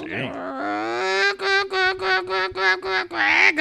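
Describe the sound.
A voice imitates hens clucking: a steady, nasal run of about eight quick pulsed clucks, fairly loud, ending with a brighter squawk.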